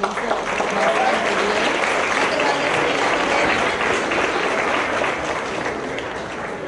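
An audience claps steadily for several seconds, a dense, even patter of many hands that holds at a fairly loud level and eases slightly toward the end.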